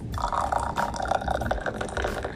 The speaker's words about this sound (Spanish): Ese es el sonido de una taza de café. Sin azúcar, nada, negra.